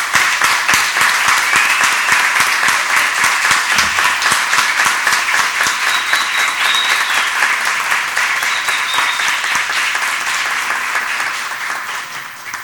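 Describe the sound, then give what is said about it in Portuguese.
A large crowd at a council session applauds steadily, dense overlapping claps filling the space at a loud, even level before tapering slightly toward the end. “Gostaria de convidar todos a uma salva de palmas”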